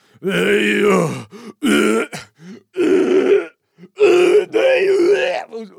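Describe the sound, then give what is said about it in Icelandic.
A voice imitates the gagging and retching heard all over a living room after someone put foul-tasting food in their mouth, with several loud, strained, throaty bursts separated by short pauses, each a harsh voiced heave with a rough, choking quality. “og vonaður þetta væri ekki það sem ég var að vona þetta myndi vera stingur því upp í munnin og síðan heyrist bara glimur út um alla stofuna þessi hérna hljóð”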